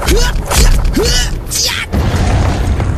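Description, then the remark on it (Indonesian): King Naga Bercona slams the child Tetuka to the ground and stomps on him: a rapid series of heavy thuds and crashes, loud throughout, with strained vocal grunts mixed in and no clear talk. “Dibantingnya Tetuka ke tanah lalu diinjak-injak sampai...”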